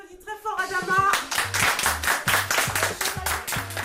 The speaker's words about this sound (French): Des rires et des applaudissements pour un moment de convivialité partagé par les bénéficiaires de l'association Femmes Inter-Association Inter-Services Migrants.